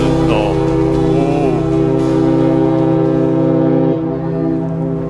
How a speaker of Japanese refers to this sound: 今五島へ行く船が汽笛を鳴らして、えー、ちょっと休憩はいそろそろねあの船が通ると引き波がねこうやってくるので後ろまザッパーンってはなるんでしょうけども